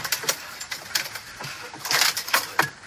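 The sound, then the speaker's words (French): A cat playing with paper on the floor in the corner of a room, batting it around and producing irregular crinkles and quick rustling taps in scattered bursts, moderately quiet, with no talking. “C'est mon chat qui est en train de jouer avec du papier par terre.”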